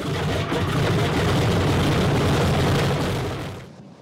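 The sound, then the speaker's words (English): A loud, sustained rumbling roar of four aircraft engines firing up, dense low-end thunder with a broad noisy wash above, holding steady for about three seconds before fading out. No one speaks. “The Earth actually moves as they belch to life.”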